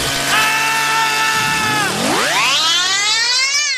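A loud chainsaw engine drones steadily, bogs down briefly, then revs up sharply to a higher whine and holds there, with no talking.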